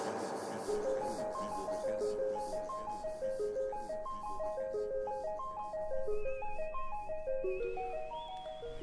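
A song by the evening's guest band plays steadily, its bright melody stepping up and down in clear, sustained notes over a full backing, with a high held tone entering near the end and no voices.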